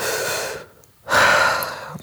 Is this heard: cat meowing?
no